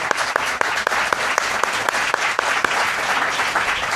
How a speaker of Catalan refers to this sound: Demanaríem un aplaudiment també per ell, no?